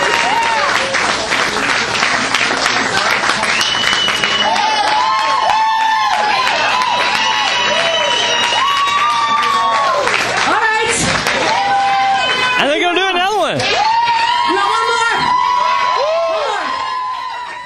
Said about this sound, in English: As you heard everybody screaming and wanting for more, they decided to do one more.